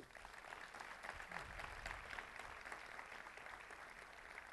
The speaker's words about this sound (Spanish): Vamos a dar un aplauso a ellos.